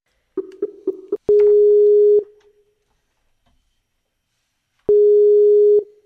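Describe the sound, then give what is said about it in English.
A few quick electronic blips lead into an outgoing Skype call ringing tone: two steady, clear one-second rings separated by a long silent pause, with no talking. “Let's go ahead and bring Kiam into this conversation via Skype.”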